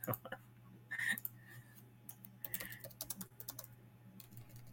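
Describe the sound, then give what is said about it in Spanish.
Rapid, uneven clicks of typing on a computer keyboard while writing in a chat, fairly quiet, in short bursts over a low steady hum. “A ver, déjale, escribo en el chat.”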